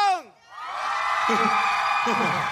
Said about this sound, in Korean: 어, 지금 와 맞습니다. 거의 3만 명 정도가 지금 찬 것 같은데요. 예, 여러분들, 여러분의 목소리가 나가니까요. 저희 기 좀 살려주십시오. 함성 갑시다. 다 같이 함성.